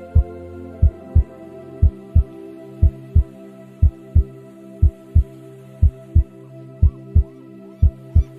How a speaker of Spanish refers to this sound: pero muchas veces en el silencio interior surge quizás en tu pecho o en otra parte de tu organismo como ese latido, como ese sentir el bombeo, como ese escuchar la canción del corazón.